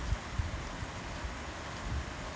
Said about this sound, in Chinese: 当雨越来越大的时候，蛙鸣声、蟋蟀的叫声就停止了。来听听雨的声音吧，这是下雨的声音。在这一个晚上，让我们分享这一份宁静。